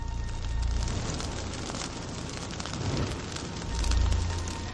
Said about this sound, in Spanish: Lanzan antorchas sobre una fosa común con cientos de cadáveres.